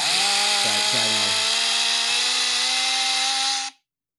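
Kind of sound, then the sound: vocal imitation, voice imitating a chainsaw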